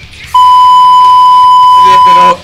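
A loud, steady electronic beep holds a single high tone for about two seconds, sounding like a truck's reversing alarm, with faint background noise and a murmur of voices near the end.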